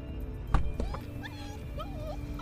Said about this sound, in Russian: Ой, э, смотри, песик в машинке скулит.